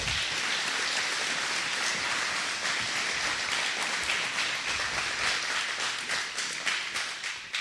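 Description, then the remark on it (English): Sustained applause from a crowd thanking a man who has been asked to stand up, a dense, steady patter of many hands clapping at an even loudness for several seconds with no voices rising above it. “Give him a round of applause before you even know.”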